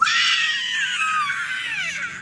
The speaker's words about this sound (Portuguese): Gritaria.